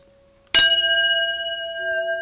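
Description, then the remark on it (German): A single bright clink of glasses touching in a toast, followed by a clear, high ringing tone that sustains and slowly fades with no talking. “Ja, darum, äh, ja, du hältst mir das Glas jetzt gerade so hin.”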